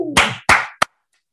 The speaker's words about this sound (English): That's a good old fashioned hand clap, man. I just want you to feel that in your spirit.